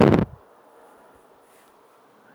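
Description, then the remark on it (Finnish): After a brief loud thump, a thin, steady insect whine hums on at low volume for a couple of seconds: mosquitoes buzzing on a cottage terrace. “istuttu täällä terassilla hyttysten ruokana”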